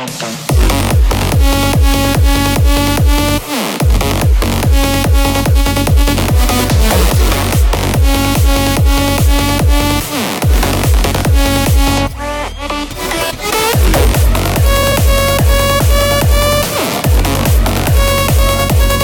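A loud electronic rave dance track with a pounding, steady four-on-the-floor kick under bright, buzzing synth chords; the beat briefly drops out for a short break before slamming back in. No voices.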